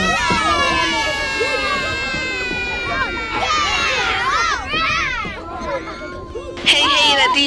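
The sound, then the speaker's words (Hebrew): Children crowd onto a school trip bus during a broadcast of the Israeli radio station Kids 120 FM, a dense babble of excited high-pitched voices chattering and shouting over one another, steady throughout, with a shrill burst of yelling near the end. “והפעם קבלו שידור כיפי, משחרר וקופצני הישר מ... אוטובוס הטיולים שלנו.”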